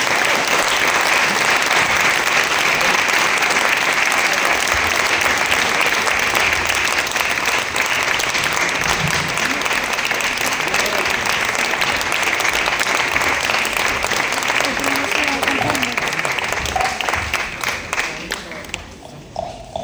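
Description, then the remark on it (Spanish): Sustained, loud audience applause for a group about to come and sing, with dense clapping filling the whole stretch, steady and unbroken before tapering off in the last couple of seconds. “Les pido, igual de fuerte, un aplauso enorme para estos amigos.”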